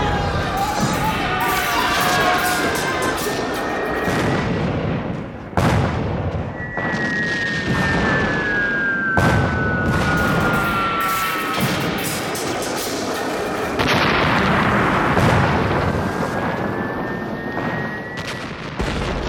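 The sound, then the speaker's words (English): Cannon batteries firing amid explosions: several heavy booms break through a constant roaring din, with high whistling tones sliding downward in between, like shells in flight. “Batteries are in place. What are your orders?”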